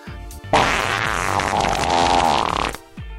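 A loud, drawn-out fart sound, raspy and sputtering, lasting roughly two seconds on its own with no talking, cutting off abruptly at the end.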